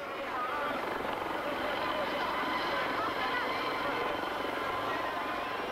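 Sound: helicopter taking off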